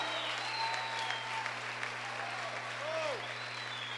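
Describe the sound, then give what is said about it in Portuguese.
An audience applauds with steady, dense clapping that lasts the whole time. A few rising whoops and cries rise above it, and a constant low electrical hum runs underneath. “Dê um braço de vitória e aplaudo.”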